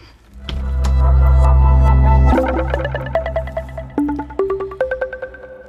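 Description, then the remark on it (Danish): A short electronic jingle used as a segment divider: a deep, swelling synth drone gives way to a quick, rhythmic run of bright, echoing plucked notes stepping upward, loud and clear with no voices. “Nu tager vi lige en skiller, og så læser jeg det højt.”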